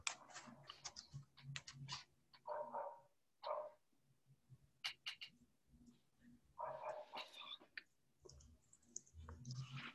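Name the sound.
german shepherd dog barking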